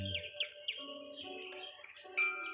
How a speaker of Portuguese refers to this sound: Deixe o som dos animais, dos pássaros cantando,